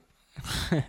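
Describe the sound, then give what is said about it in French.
A dog named Brown makes a brief, high vocal sound right up against the microphone, after a second of breathy snuffling and rustling. No one speaks. “Brown va nous dire un truc dans le micro.”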